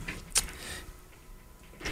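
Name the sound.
chair being swapped out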